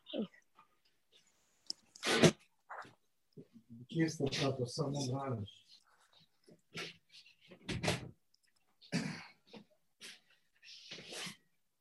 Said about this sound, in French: Il y a du bruit là. Vous avez du bruit. Je vais, je vais juste fermer la porte, si vous me permettez. Ah oui, voilà.